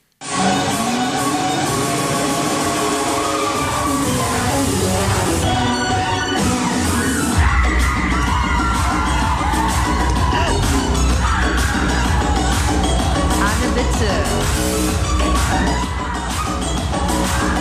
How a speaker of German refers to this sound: Ich würde euch gerne erstmal so einen kleinen Eindruck von der musikalischen Situation. Man hört auch die Menge in diesem Ausschnitt.